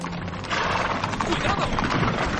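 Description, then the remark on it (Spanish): A horse-drawn carriage rolls by, hooves clip-clopping in a quick steady rhythm over a dense, busy street clatter that stays loud throughout. “Un coche pasa ante él.”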